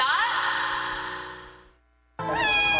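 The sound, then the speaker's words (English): Two drawn-out, fairly loud cat meows, the first trailing off into a brief silence before a second, higher and wavering meow begins. No talking. “They're cats.”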